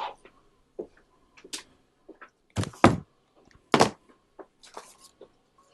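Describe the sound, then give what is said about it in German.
A key rattles and turns in the lock of a locked cabinet, a safe, giving a series of metallic clicks and clunks, with two louder mechanical thunks near the middle as the bolt releases. “Ja, hat sich da ähm, gerade ein ähm, Schlüssel gedreht zu einem abgeschlossenen Schrank? Ja, das ja, haben Sie richtig gehört.”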